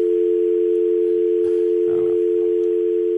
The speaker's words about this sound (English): oh, no. dial tone again. Still missing.